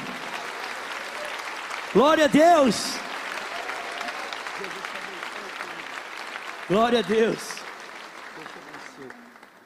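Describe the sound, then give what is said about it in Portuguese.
A church audience applauds the Lord in a steady, dense wash of clapping that carries through the whole stretch, while a voice calls out loudly twice above it, urging them to clap hard. “Glória a Deus, põe o seu copinho no bolso e vamos aplaudir o Senhor por essas vidas aqui, amém. Pode aplaudir forte aí, meu irmão.”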